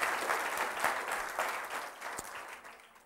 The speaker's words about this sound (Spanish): Gracias Señor. Vamos a darle un aplauso al Rey de Reyes y Señor de Señores Jesucristo.